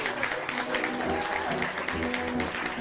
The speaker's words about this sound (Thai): ทุกคนต่างปรบมือและส่งเสียงเชียร์